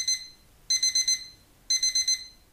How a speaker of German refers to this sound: Oh, huch, das war mein Wecker. Ich muss wohl eingeschlafen sein.